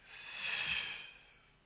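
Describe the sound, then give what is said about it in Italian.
A deep breath pushed out forcefully, one airy rush of air that swells over about half a second and then trails away, with no talking. “Mi fermo, respiro, butto quella rabbia fuori,”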